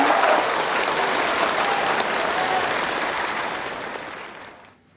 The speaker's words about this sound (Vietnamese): Xin hãy dành một, dành một tràng pháo tay nữa